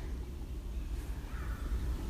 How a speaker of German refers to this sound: Ich bin mal wieder im Wald und die Vögel zwitschern wunderschön. Das ist immer so schön, wenn ich hier bin und euch aufspreche, seid ihr immer mitten, mitten in der Natur mit mir. Und die Vögel, die sind ja gerade ganz wach. Die spüren den Frühling.